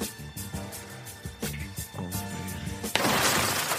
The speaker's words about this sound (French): brise la vitre d'une voiture avec son coude et en ouvre la porte.